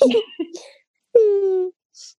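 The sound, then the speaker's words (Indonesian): A person mimics a baby's cry with a short wailing vocalization, then a drawn-out, rising whine, loud, followed by a faint brief breathy sound. “Ini bayi lu”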